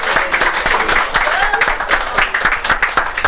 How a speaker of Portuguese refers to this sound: Se você crê, se você crê que realmente o Senhor já fez na tua vida, dá um glória a Deus, aplauda o Senhor, aplauda o Senhor.